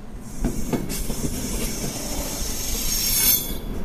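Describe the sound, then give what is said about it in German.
A night train with sleeping and couchette cars rolls slowly along the tracks at Zürich's terminus station, reversing direction as it is shunted onto a siding, with steady low rumbling, a few metallic clanks, and a rising high-pitched wheel squeal toward the end. “Der Zug wechselt ein letztes Mal die Fahrtrichtung. Das hat er in Basel und in Frankfurt am Main auch schon gemacht. Und dann wird er auf ein Abstellgleis gezogen.”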